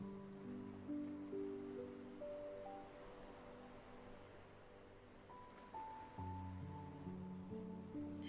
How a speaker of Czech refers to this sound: zatímco mořské vlny pokračují ve svém plynulém rytmu.